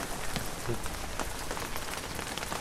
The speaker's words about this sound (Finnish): Häh, kiva syyssää täällä näin. Joo. Sataa vettä.